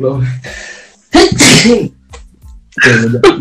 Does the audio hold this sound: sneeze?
yes